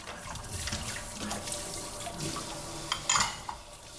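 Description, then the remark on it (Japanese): Tap water runs steadily into a sink while dishes are washed after cooking, with soft clinks and splashes of handled items near the end; continuous, no voices. “今回はその料理の後のね、えー、食器洗いの環境音をパックにしながら、ね、えー、食器洗いの洗剤のお話をしてみました。”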